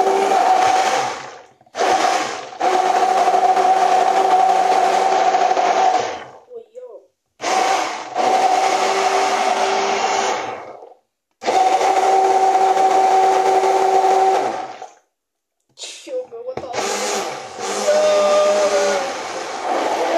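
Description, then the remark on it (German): An immersion blender whirs loudly in about six bursts of varying length, its steady motor whine rising and dropping between short pauses. “Ja, das ist auch das erstmal der typische Stabmixer.”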